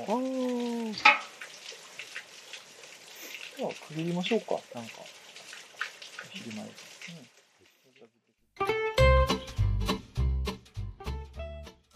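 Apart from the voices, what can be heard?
running water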